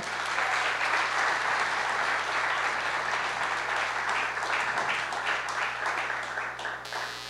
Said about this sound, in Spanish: Y le damos, la, damos un aplauso al Señor. Un éxito.